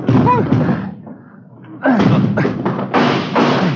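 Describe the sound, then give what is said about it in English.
Heavy, loud thuds of a body slamming against a front door blocked by something piled against it, coming in a rough series of repeated impacts, with strained voices and shouting mixed in. “the front door. Yeah, come on. Come on, hit it.”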